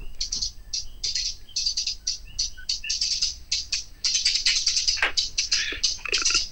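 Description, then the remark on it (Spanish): A drill-style hi-hat pattern: crisp, bright ticks in quick stuttering bursts and rolls with uneven gaps, fairly loud, playing alone without voices or other instruments. “Mira, estos son los hats, suenan diferentes.”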